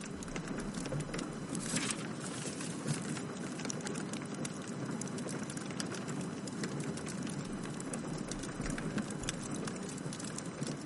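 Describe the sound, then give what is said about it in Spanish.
Steady rain that has just started falls outside at night, a dense, continuous hiss of drops with faint irregular taps, holding an even level throughout with no voices. “ha empezado a llover”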